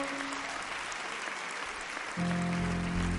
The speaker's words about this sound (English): a hand clap